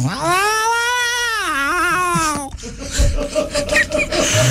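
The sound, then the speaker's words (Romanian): A person imitates a cat in heat with one long, wavering, drawn-out caterwaul lasting a couple of seconds, followed by laughter and brief chatter. “ca și pisicile când sunt în perioada aia.”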